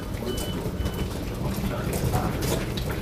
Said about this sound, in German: Das ist ähm, der Zug, der nach München Hauptbahnhof jetzt fährt. Ja, genau.